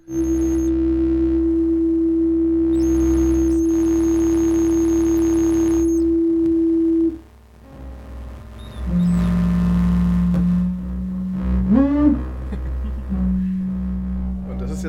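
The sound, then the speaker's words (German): Steady electronic feedback tones from a TV imitator paired with a surveillance camera hum and shift in pitch as a hand moves near the imitator, a long sustained whine giving way to wavering, chirping squeals and short sliding tones, loud, with no voices. “Das sind jetzt wahrscheinlich ganz viele verschiedene Feedback-Schleifen hintereinander.”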